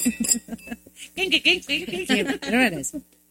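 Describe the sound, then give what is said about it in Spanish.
A few quick, bright clinks of crystal glasses touching in a toast, one leaving a short ring, followed by voices talking and laughing. “pero por favor, chicas, tomen sus copas, ah, las de vidrio. Sí. Las de cristal, por y favor.”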